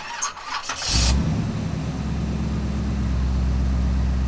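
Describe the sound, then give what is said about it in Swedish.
A car engine cranks briefly for about a second, catches, and settles into a steady, low rumbling idle, with no voices, as the car is started for an evening drive. “Vi tog en kvällstur med bilen.”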